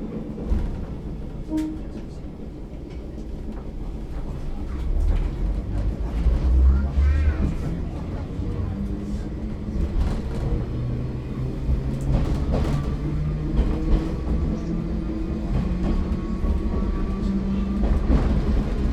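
A Choshi Dentetsu Deha 801 electric railcar rolls along the rails between Tokawa and Inubo with a steady, heavy rumble, scattered wheel clicks and clatter over joints, and occasional squeals, continuous throughout.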